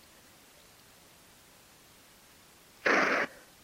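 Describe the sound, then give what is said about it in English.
A single short, loud scuffing rustle of a phone rubbing against an arm, lasting about a third of a second against a faint steady hiss. “Okay, that's my phone against my arm.”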